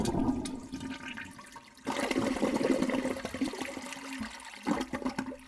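A toilet flushes in a bathroom, a loud rushing swirl of water that briefly drops off, then surges again and gurgles as the bowl drains and refills. No one speaks.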